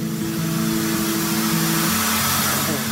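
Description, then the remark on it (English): A steam locomotive heard from the very front during a train ride at Didcot Railway Centre in Oxfordshire: a loud, steady roar of hissing steam and machinery over a low, droning hum, with no clear chuffing rhythm and no voices. “it is, of course, a railway centre, and no trip would be complete without a ride on a train.”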